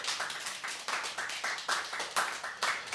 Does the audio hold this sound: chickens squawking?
no